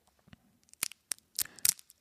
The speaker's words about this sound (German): Niveau Auf ist Schock muss ich erstmal mein Babybell hier auspacken.